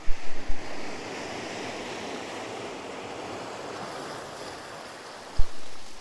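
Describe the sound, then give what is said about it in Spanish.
Ocean waves crash against rocks in a steady, roaring wash of surf, with a few heavy low thuds at the start and another strong impact near the end. No voices. “Porque nuestro interior es como estas olas que constantemente están en ruido.”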